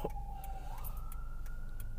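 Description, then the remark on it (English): Ambulance sirens wail outside, a steady tone sliding upward in pitch, moderately faint beneath a low rumble of background noise, with no one talking. “What's with all these fucking ambulances?”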